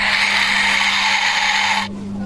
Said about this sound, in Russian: Это медведь, которого только что разбудили. Если зима, то медведь не всегда доволен тем, что ему нажимают на животик. Звуки воспроизводит маленькое устройство, которое потом размещают внутри игрушки.